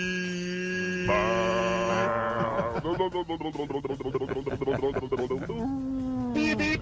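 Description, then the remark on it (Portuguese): A voice imitates a car horn with the mouth for a horn-imitation game: long, steady, buzzy honks at shifting pitches, then a quick run of rhythmic staccato beeps, ending on another sustained honk. “Você tem que fazer uma buzina com a boca, beleza?”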